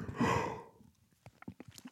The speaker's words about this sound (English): I'm yawning into the mic.